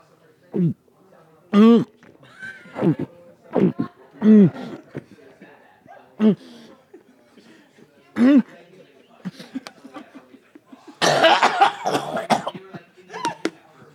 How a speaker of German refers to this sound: Ja, und gibt es jetzt Bier, oder? Kann ich das jetzt live exen? Ich meine, wird es übertragen? Das wird übertragen. Je, je, lauter du das machst, umso mehr hört man davon.